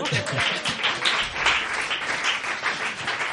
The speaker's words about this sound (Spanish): Un aplauso por esto.